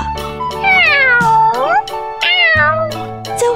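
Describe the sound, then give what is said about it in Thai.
A cat that has run home meows several times in a row while rubbing against its owner's legs, loud, with long drawn-out, wavering cries that rise and fall in pitch, with no voices present. “เจ้าแมว รีบวิ่งมาถึงบ้านก่อนร้องเหมียวเหมียวไปมาเคราแข้งเคล้าขา ประจบเจ้าของอยู่นั่นเอง”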